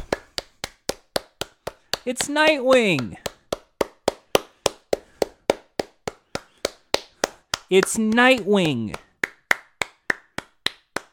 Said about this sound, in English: Folks, we did it! We got Nightwing! Please clap! Please clap! It's Nightwing!